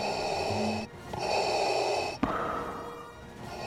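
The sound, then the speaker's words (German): Darth Vader's slow, hissing mechanical breathing through his respirator mask from Star Wars, loud, with drawn-out inhales and exhales separated by a brief click, and no talking. “Nicht nur das Geräusch von Darth Vader, die nur eine Atemmaske des Imperators, des Befehlshabers über die dunkle Seite der Macht am Leben erhält, ist heute Kult.”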